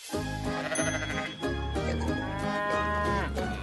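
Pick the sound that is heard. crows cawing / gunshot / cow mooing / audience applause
cow mooing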